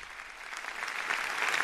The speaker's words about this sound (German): Dann gibt es spontanen Applaus für Papst Franziskus Betrachtung zu Marseille.